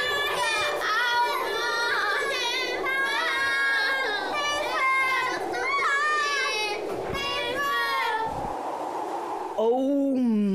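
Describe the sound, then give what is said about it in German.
Several children's voices scream and call for help at once, high and overlapping in a loud, continuous chaotic burst lasting about ten seconds, ending with a brief different cry. “Hört nur, sie schreien und rufen um Hilfe.”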